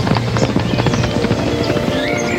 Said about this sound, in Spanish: Una semana después, el caballo volvió de las montañas trayendo consigo una manada de caballos.